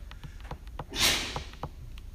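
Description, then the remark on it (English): A single sneeze bursts out from somewhere in a crowd, a short hissing explosion rising above a low murmur of room noise and faint shuffling. “Bless you.”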